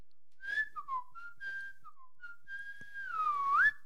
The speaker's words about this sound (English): Next, whistling.